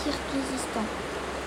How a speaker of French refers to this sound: Je suis actuellement à toktogul et le bruit que vous entendez derrière moi, c'est le barrage hydroélectrique qui est en train de produire de l'électricité